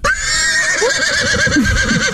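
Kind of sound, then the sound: animal, horse neighing sound effect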